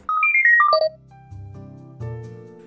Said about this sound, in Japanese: ミルク工房守屋さんでこれ収録してますのでちょっと電話の音とか入ってますけどすごくねそのままありのままでいいと思いますはい、とんでもない いやお電話かかってくってことはいいことだと思いますよ